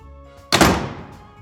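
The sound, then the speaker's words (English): A die dropped into a dice jail, rolling a 12, lands with a single sharp, loud thunk, then a short rattling clatter that quickly fades. No one speaks. “Put your dice in the dice jail. It's going in dice jail.”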